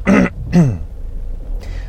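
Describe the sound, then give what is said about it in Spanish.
Two harsh, phlegmy throat clearings in quick succession, fairly loud, from someone with phlegm but no cough, followed by a faint breathy rasp after a pause. No talking. “Hoy no tengo tos, pero tengo pollo.”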